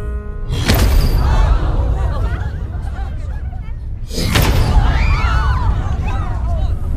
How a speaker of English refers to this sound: If you are with us, use two knocks for yes, one knock for no.